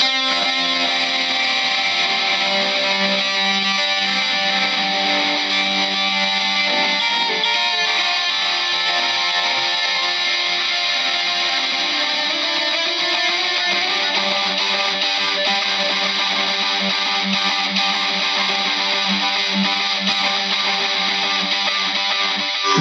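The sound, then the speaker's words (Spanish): A heavily distorted electric guitar plays a sustained, loud solo line with smeared echoing repeats, dense and continuous throughout, with no voices present; the solo uses a bit more distortion and a changed delay effect. “después lo que es lo que les mencionaba, que es el, solo con una, un poco más de distorsión y ahí cambian el, cambia el delay.”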